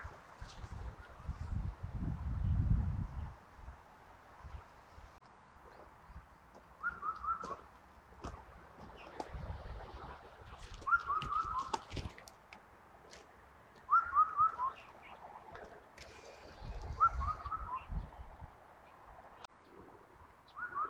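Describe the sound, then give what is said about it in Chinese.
An Indian cuckoo (four-note cuckoo) calls over and over, its whistled four-note phrase repeating every few seconds at a moderate level, with gusts of strong wind rumbling underneath. “现在最多的看见的就是四声杜鹃，不但能看见它，还能听着它叫。”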